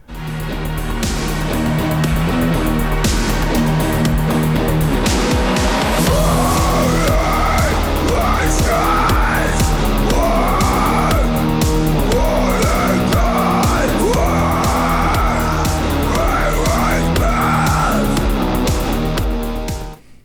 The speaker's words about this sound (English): it's kind of like a mix between, you know, it's got some metal elements and it's got some dark synth elements in there